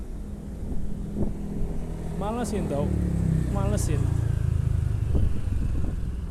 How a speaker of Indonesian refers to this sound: kayak mohon maaf kalau anginnya kedengaran kenceng tumben banget nih anginnya kenceng dan banyak kendaraan lalu lalang